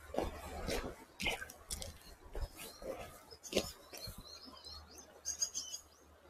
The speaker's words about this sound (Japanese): 今ですね、ちょっと川に来てみました。せせらぎ。せせらぎが聞こえるでしょうか。